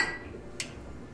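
A single short, bright clink of glasses touching in a toast at Mulegé Brewing in Mulegé, Baja California Sur, quick and high-pitched, rising briefly above a quiet low rumble; no one speaks.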